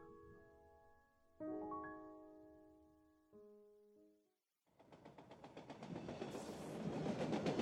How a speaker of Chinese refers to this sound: 我工作的地方在一条城市铁路下面，每天固定时间，我都会听到火车在上面经过的轰隆声。轰隆，轰隆，轰隆。我常常闭着眼睛听，